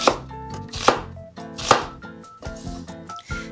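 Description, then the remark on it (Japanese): A knife chops lengthwise through a new onion on a cutting board, several crisp cuts landing in an uneven rhythm, fairly loud, with no talking. “まず縦半分にザクッと切りますそれから、えーと、横半分に切りましょうそして、えー、もう一回縦にザクザクザクと切っていきます”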